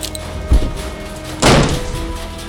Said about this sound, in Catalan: Llança el motxo de José María contra la porta per falcar-la i que no es tanque. És veritat! El motxo de José María!